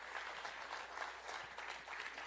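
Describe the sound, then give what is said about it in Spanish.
Steady applause from an audience, a dense wash of many hands clapping at once with no breaks, holding an even level throughout without any talk over it. “Si usted está de acuerdo conmigo, démosle un aplauso fuerte, fuerte, fuerte al Señor.”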